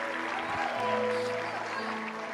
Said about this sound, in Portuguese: Uma mão só é pouca, levanta as duas e aplauda aquele que pode ajudar e socorrer cada um de nós.